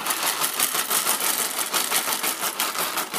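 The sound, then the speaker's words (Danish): An espresso machine grinds coffee beans, loud, a continuous harsh whirring with a rapid, slightly pulsing crunch. No one speaks. “Så er det sådan en espresso-maskine, der, der rister bønderne.”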